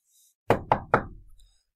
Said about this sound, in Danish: ja, så bankede det på døren.